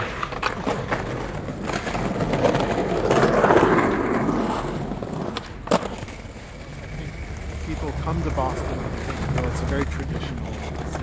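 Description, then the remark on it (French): Skateboard wheels roll in a steady, gritty rumble that swells and fades, with a sharp clack partway through, while indistinct voices murmur underneath. “And I love the sound of skateboards.”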